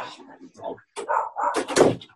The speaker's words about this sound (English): We had a problem with the dog last night when we were recording, so it's uh, yeah, yap, yap, yap. Goes with the territory.